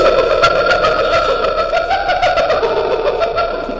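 A hyena call: a loud, continuous wavering cry with an eerie, nasal tone that holds steady for several seconds, close and clear, with no talking over it.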